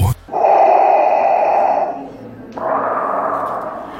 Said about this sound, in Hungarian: Kedves hallgatók, itt vagyunk Szegeden a belvárosi mozi megnyitó ünnepségén, és ez a szuszogás Gondolom ismerős lehet számotokra. Ha hiszitek, ha nem, itt áll előttem a galaxis legfélelmetesebb Lordja, maga Darth Vader.